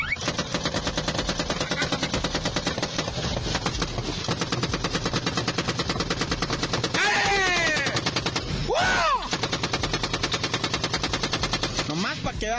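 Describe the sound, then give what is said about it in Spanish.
A 7.62 long caliber gas-operated automatic machine gun, of the type mounted on helicopters, here carried in hand by a man, fires long, rapid bursts almost nonstop, loud, with brief shouting voices rising over the gunfire midway. “Es más, esta ametralladora que vas a oír ahorita es de las que montan en los helicópteros, de los que disparan desde el helicóptero.”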